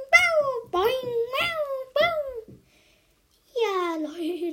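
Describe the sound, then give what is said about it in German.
A cartoon cat in a mobile game meows several times in quick, bright succession, then falls silent briefly before a final, longer drawn-out meow. The sound is clear, with no talking. “Drücke auf den Ball und spiele mit der Katze.”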